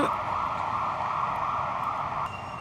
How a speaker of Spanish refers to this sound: Y la ambulancia de nuevo, Dios mío